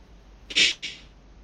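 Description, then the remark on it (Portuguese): A single sharp sneeze bursts out, a loud hissy blast followed by a softer trailing puff, with quiet background otherwise. “Saúde.”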